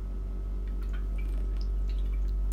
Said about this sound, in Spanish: Bueno, a tomar agua